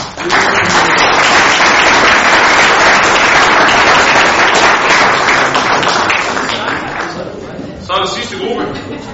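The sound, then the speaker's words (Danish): A crowd breaks into loud, sustained applause, many hands clapping densely for several seconds before it thins out, with a few voices murmuring as it fades. “Tak for det, og skal vi ikke lige give dem en hånd?”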